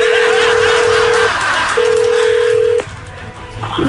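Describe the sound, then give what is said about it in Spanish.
A telephone call being dialed by an agent: two long, steady low-pitched tones with a short gap between them, sounding loudly over a constant rushing background hiss, followed by a click. “Márcale, por favor.”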